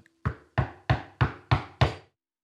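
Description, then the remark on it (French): Six firm knocks on a wooden door in a steady, even rhythm, each a hollow thud with a short decay, clear with no talking. “C'est alors qu'on frappa à la porte.”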